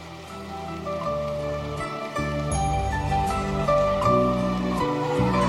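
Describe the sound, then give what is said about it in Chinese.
Sustained audience applause welcoming radio station head Lu Junhong at a Buddhist gathering. A dense, crackling patter of many hands clapping runs steadily for several seconds over loud music with a rhythmic bass line. No one speaks. “现在，让我们用最热烈的掌声，恭请尊敬的卢军宏台长。”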